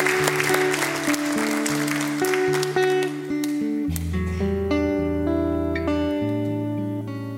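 A crowd claps steadily and densely as the SWR4 band starts a song, then the applause thins out as the music with its sustained tones takes over.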